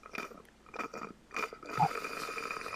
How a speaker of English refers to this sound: That's very loud sipping. I don't know if you want to edit that out or not.